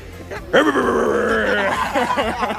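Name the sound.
voice imitating loud snoring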